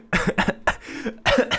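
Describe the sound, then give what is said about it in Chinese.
A run of harsh, raspy coughs comes in quick bursts, a cluster of three or so, a short pause, then two more. They are fairly loud, with no talking over them. “哎， 干嘛咳嗽？”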